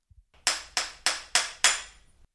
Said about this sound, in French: Écoutez maintenant le son du bouchon qui sort.